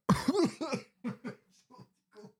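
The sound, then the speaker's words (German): A loud cough fit: one strong hacking burst followed by several shorter, weaker coughs that taper off over a couple of seconds, with no talking. “Dilettantisch gehustet gerade.”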